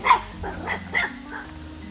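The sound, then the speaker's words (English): A dog about to chase a cat barks about four times in quick, uneven succession, the first bark loudest and the rest a bit softer, over a low steady background hum. “Um, lady, my dog is about to chase this cat”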